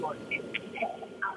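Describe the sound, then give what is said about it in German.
A muffled public address announcement at a train station, an amplified voice echoing faintly for a brief moment. “Oh, jetzt will nee, ich eine Durchsage.”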